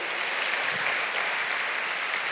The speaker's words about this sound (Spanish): ¿Quién le puede dar un fuerte aplauso al Señor por eso? Amén.